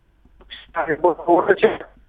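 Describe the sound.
A voice over a narrow, tinny phone line comes through choppy and garbled, with words cutting in and out in short broken bursts.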